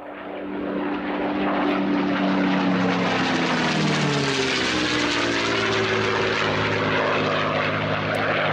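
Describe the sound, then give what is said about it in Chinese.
A Spitfire propeller fighter plane's engine roars loudly and steadily throughout, its deep droning tones sliding lower midway as the aircraft passes by, with no voices. “很特别的就是这个的声音不是一个普通飞机的声音，这个的声音是叫做喷火战斗机的声音。”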